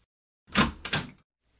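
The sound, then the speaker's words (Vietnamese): A room door swings open with a short creak and scrape in two quick bursts as a maid hurries in, heard alone against a quiet background. “Lúc đó, cửa phòng mở, cô người hầu Marisa cuống quýt chạy tới.”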